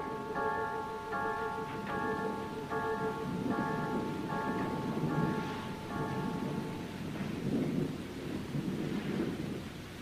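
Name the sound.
rain with thunder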